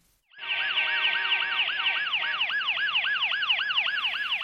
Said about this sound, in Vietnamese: Qua điện thoại, cô nghe thấy cả tiếng còi xe ô tô, tiếng còi xe cấp cứu. Hình như đang ở giữa đường.